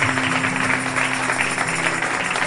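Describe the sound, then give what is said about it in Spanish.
A steady wash of applause in a church after a prayer, many hands clapping together at an even, sustained level with no voices over it, set against a faint low hum. “Puedes dar un aplauso si quieres.”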